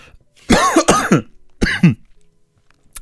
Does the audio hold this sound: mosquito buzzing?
no